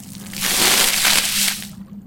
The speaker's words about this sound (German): Äh, also ich entschuldige mich schon mal in Gedanken an Karl Otto und nehme den Eimer und gieße ihn mal so erstmal ganz leicht über das Gesicht der Dame.